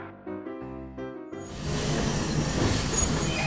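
A train pulls into a seaside station: a chord of squealing, whistle-like tones for about a second gives way to a loud, steady rushing hiss, like released steam, with no voices.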